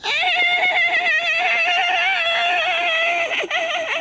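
A loud, sustained horse whinny sound effect played by a DJ, with a wavering, trembling pitch, stretching over about four seconds and tapering with a short shaky flutter at the end. No voices are heard.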